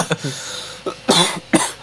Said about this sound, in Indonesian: ya Allah batuk gue